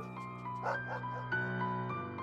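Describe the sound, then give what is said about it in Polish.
A police tracking dog barks a few times in short, spaced bursts over a steady droning background hum with no talking. “To właśnie wtedy, po raz pierwszy w historii polskiej kryminalistyki, zdecydowano się na użycie policyjnego psa tropiącego.”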